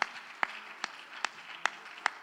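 A crowd applauds steadily, a dense wash of hand clapping with sharper, louder claps landing in a regular beat about twice a second, as if someone nearby is clapping in time.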